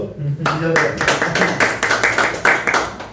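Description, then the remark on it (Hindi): A small group claps together in a steady, rhythmic beat, the sharp hand claps fairly loud, with voices chattering underneath. “चलो कोई नहीं ਇਹਨੇ एनकरेज किया ये सब ने सारे ਤਾੜੀ मार दो”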